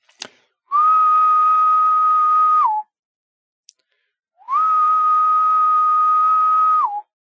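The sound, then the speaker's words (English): A person imitates the song of a Decim periodical cicada: two long, steady, buzzy whistled tones of about two seconds each, separated by a pause. Each tone is loud and ends with a brief downward drop in pitch. “So, species number one, meet Decim, He's a little bit country. Something along the lines of this.”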